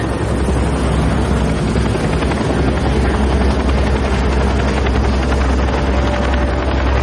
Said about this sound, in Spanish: Legasov sigue a un helicóptero con la mirada.